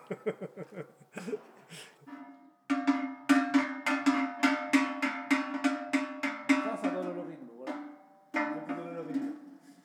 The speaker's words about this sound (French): Ça, c'est cloche de Savoie.